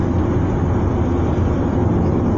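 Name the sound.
car interior driving noise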